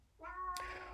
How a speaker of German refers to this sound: Ja, das war die Katze.